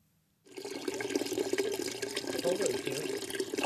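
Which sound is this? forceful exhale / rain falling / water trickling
water trickling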